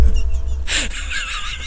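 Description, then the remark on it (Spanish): A person imitates a horse's neigh: a sudden breathy burst followed by a high, quavering whinny that wobbles up and down, fairly loud with no talking over it. “Relinchás de libertad.”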